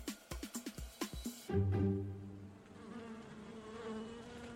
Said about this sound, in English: We're heading up to the hotel's rooftop Wildflower Terrace to meet some other special agents 300,000 wild bees.